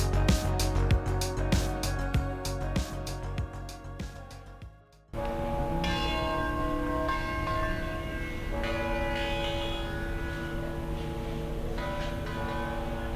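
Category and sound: ambience, basilica church bells ringing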